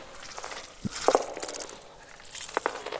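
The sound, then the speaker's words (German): Slow, wet, sticky footsteps descend the stairs of a stairwell, just a few widely spaced, soft squelching steps that grow louder, heard alone against a faint hissy background. “Langsame, feuchte, klebrige Schritte, die lauter werden.”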